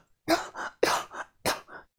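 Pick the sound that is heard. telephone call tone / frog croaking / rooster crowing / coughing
coughing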